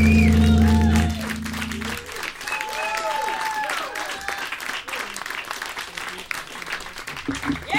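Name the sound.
audience applause and cheering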